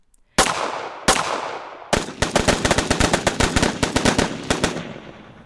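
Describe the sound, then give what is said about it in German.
Two loud single gunshots ring out, then a rapid burst of many shots in quick, uneven succession, sharp cracks with ringing tails, and no voices: police returning fire in the early morning on Kelly, who attacks them from behind wearing iron armour and carrying three pistols. “Diese erwidert das Feuer.”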